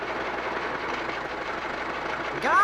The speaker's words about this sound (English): We've been riding around in the giant blueberry's car a long time now looking for Lake Chihuahua. Uh, all I've seen are these country roads and lots of countryside.